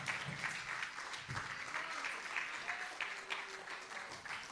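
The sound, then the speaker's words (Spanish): An audience at a church service applauds steadily, giving a round of applause to God, a dense, continuous patter of many hands clapping at even loudness for several seconds, with faint murmuring voices mixed into the clapping. “Si no hay nadie más, denle un aplauso a Dios”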